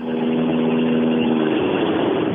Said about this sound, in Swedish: Ja, 1300 varv i tomgång. Man hör, ja, jävlar vad fint han går.